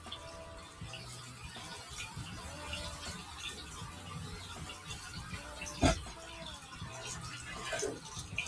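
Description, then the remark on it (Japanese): Tap water runs steadily for several seconds as a kitchen knife is quickly rinsed under it, with one sharp clink of metal partway through and a faint sizzle of eggplant frying in oil in the background. “包丁もさっと洗いましょう。”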